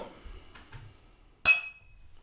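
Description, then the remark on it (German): Two glasses of IPA beer clink together once in a toast, a sharp, bright ring that lingers briefly after a moment of quiet room noise. “Prost.”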